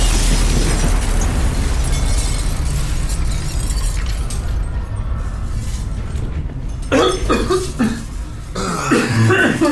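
A loud explosion: a heavy, sustained low roar that rumbles for several seconds, then sharper crackling bursts near the end. No one speaks.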